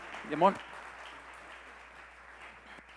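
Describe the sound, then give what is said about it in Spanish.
A crowd applauds people going up onto a panel, in a steady, dense wash of clapping that fills the whole moment, with a brief voice rising over it near the start. “Denle un aplauso que iban subiendo por allí, ¿verdad?”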